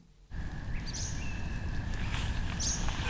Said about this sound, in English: if you take time to just stand, close your eyes, and listen in Shane's, you can hear an orchestra of birdsong.